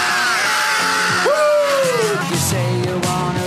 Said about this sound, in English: Check out the scream at the oh, beginning here. Yeah. This fuzzed out guitar, too.